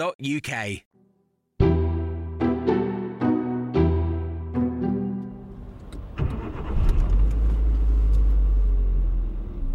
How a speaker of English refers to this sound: Okay, so I've just hopped in the car now just to drive through the Taunton town centre, past all these shops which are supposedly shut down, which actually most of them are occupied, it has to be said.